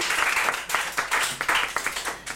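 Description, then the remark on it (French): A crowd applauds itself steadily, dense overlapping claps filling the whole stretch at a fairly loud level with no pause. “Mais en tout cas, vous pouvez vous applaudir. Bravo à tous.”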